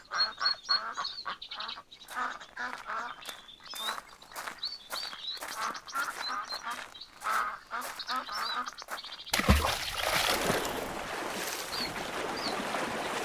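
A flock of ducks at a lake quacks in rapid, overlapping bursts for several seconds, fairly loud, before a sudden rush of splashing water from a person wading in the lake takes over at the end.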